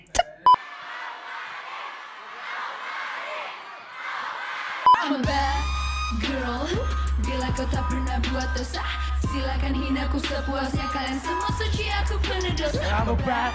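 A big concert crowd roars and screams, then loud amplified music with a heavy bass beat kicks in, and many voices sing along over it, close and continuous.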